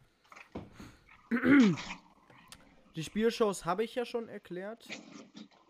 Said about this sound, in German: Ich weiß gar nicht, wollte ich gerade sagen, was sind das für Hintergrundgeräusche? Äh. Das ist mein Stuhl. Ein Stuhl.